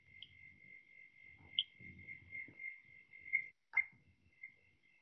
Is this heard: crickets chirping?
yes